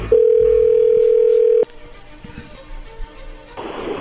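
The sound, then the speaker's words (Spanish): A loud, steady telephone dial tone, heard while a call is being dialed, holds one pitch for about a second and a half, then cuts off abruptly, leaving faint line hiss and quiet background noise. “Qué bárbaro, ahí se está marcando, no haga ruido.”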